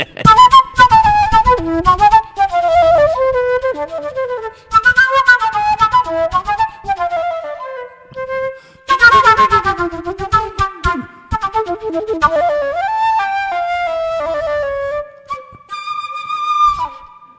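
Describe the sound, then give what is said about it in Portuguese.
A transverse flute plays a wavering melody, with breathy sustained notes and pitch slides, a brief pause near the middle, then more phrases ending on high held tones. “Flauta transversal o nome disso, hein,”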